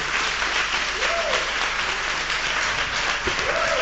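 An audience in the auditorium of the Christian Service University College applauds steadily, a dense, even wash of clapping that holds a constant loudness throughout, with a few faint voices rising briefly within it.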